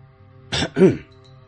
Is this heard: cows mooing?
no